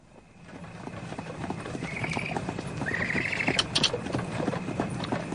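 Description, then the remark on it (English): Horse hooves clip-clop in a steady, brisk rhythm as a buggy is pulled along, with a couple of brief high-pitched squeaks partway through and no voices. “You handle horses well.”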